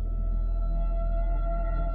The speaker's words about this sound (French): Ici, dans une clairière où coule une rivière, le grand loup s'avance seul. Il songe un temps, puis il pousse un hurlement long et lugubre avant de partir.